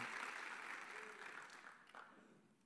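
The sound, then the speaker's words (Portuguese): A church audience claps for the Lord during a Portuguese-language sermon, a steady, dense wash of applause that gradually fades over a few seconds, with a faint murmur of voices mixed in. “Aplauda o Senhor, glorifique o nome dEle.”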